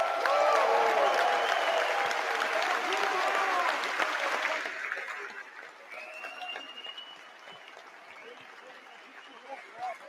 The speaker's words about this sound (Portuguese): Eu pediria uma salva de palmas para o professor José Afonso da Silva aqui presente.